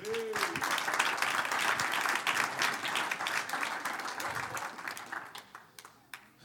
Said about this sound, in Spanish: Entonces, ¿ya están todos los jóvenes aquí? Un aplauso a los jóvenes.